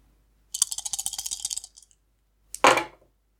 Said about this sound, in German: Okay, da du keine Fate-Punkte mehr hast, kannst du eigentlich nur würfeln.